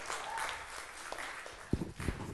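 Audience applause, a dense crackle of many hands clapping steadily at moderate volume, with a few sharper, louder claps standing out toward the end.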